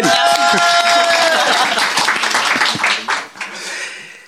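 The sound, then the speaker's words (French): A crowd claps steadily for several seconds, the dense patter of many hands filling the space, with a drawn-out vocal whoop riding over the start before the applause thins toward the end. “Eh, bah, on applaudit s'il vous plaît.”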